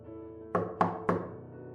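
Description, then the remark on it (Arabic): Three quick, evenly spaced knocks on a door at midday, each a solid thud with a short ringing decay, heard over a steady low tonal background. “على الظهر الباب خبط”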